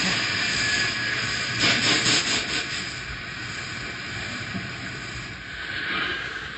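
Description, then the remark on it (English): A train grinds as it brakes coming around the last curve, the drag of the curves slowing it to a stop. A steady high metallic squeal sounds over a broad rushing hiss and low rumble. It is loud, swelling briefly before easing off. No one speaks. “Drag of curves on rest of train, slowing it down. Cable, He's stopping.”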